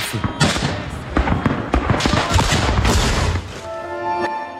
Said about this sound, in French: Il fait encore nuit noire, impossible de visualiser l'ennemi, mais déjà les échanges de tirs sont intenses.